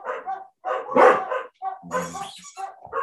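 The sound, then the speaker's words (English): A dog barks several times in quick, uneven bursts, loud, with a few higher yelping notes mixed in and short pauses between barks. “Yeah, they were about to bark.”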